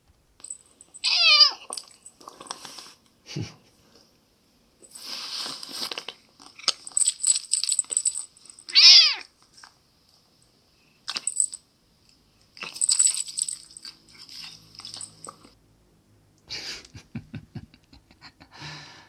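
A cat crunches and chews its food up close in irregular bursts, letting out two short, clear meows along the way, with brief quiet gaps between mouthfuls.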